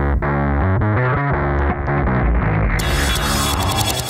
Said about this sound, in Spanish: Vamos a verlo un poco más adelante, así que vamos con esta tremenda cortinilla.